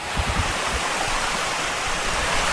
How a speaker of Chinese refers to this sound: 朋友们，听到潺潺的流水声了吗？没错，现在我们就已经置身在莫干山啦。